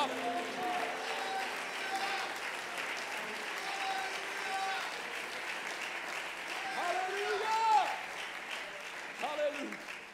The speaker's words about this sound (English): In the name of Jesus Christ, if you will agree with me, lift up your voice and clap your hands unto the Lord of glory.